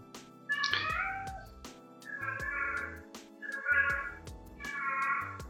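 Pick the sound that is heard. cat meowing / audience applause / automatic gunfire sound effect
cat meowing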